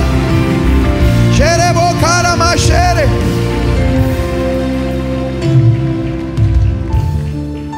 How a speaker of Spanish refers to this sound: Venga la alabanza, venga la alabanza. un fuerte aplauso al Señor en esta hora.